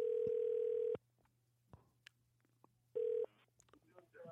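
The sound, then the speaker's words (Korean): A telephone line sounds a steady, loud mid-pitched tone for about a second, then after a pause a second, shorter burst of the same tone, with faint clicks and rustling between, as a call is placed to a listener during a radio show. “전화 걸어야 될게. 한번 걸어주세요.”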